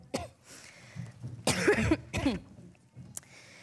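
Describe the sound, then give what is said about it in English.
A person coughs and clears their throat several times in quick succession, loud, with harsh bursts separated by short pauses and no talking, during a religious service. “I'm going to pray if I don't start coughing, and then we're going to sing, and that'll be the end of our service.”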